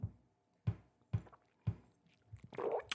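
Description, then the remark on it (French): Someone takes a drink, with three soft, steady gulping swallows about half a second apart, then a brief breathy rustle as they finish. “Attendez, je bois un coup.”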